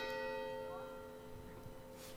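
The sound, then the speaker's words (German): Church bells ring out with a long, sustained metallic tone whose harmonics hang in the air and slowly decay, with faint ambient background. “Die Kirche hört sich immer so schön an.”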